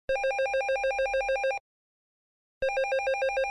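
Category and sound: signal or alarm, telephone ringing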